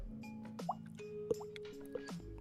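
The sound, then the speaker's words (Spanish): A voice imitates dripping water with a handful of wet, hollow plops at an irregular pace, fairly quiet, with a faint hum underneath. “¿Has escuchado alguna vez cómo he hecho, cómo hecho agua con una botella?”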